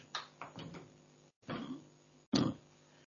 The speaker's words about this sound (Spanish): Y bueno, yo creo que voy a ver si puedo cerrar la puerta, si me permitís.